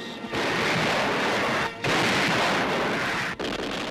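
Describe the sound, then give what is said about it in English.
Heavy naval gunfire, broadside after broadside fired out at sea at coastal batteries, roars in a dense, continuous barrage, broken by two brief pauses into three long, loud bursts of booming, crackling noise, with no voices. “Out at sea, broadside after broadside was fired at the coastal batteries.”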